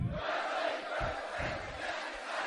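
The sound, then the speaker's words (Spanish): A large audience, hands on hearts, chants a pledge together in unison in Spanish, "I am willing to do whatever is necessary", many voices blending into a loud, steady roar of words with a rhythmic rise and fall. “Dos manos al corazón y vamos a repetir. Yo estoy dispuesto a hacer lo que sea necesario.”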